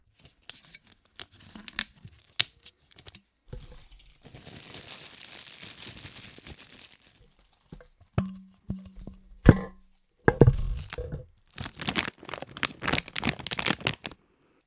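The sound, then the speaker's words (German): Crackly rustling of plastic packaging, a medicine or sweets package, being handled and squeezed, with sharp irregular crinkles and snaps, a brief hollow squeak of a plastic bottle being pressed, and no voices. “ich hatte hier so eine Medikamentenpackung oder eine Bonbonpackung, natürlich eine Plastikflasche”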